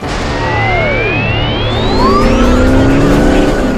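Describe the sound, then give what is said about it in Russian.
A truck carrying game discs drives along the road with a steady, loud engine roar, while rising and falling whines sweep past like vehicles speeding by and tires squealing. “Наша цель вон тот грузовик с дисками Андромеды.”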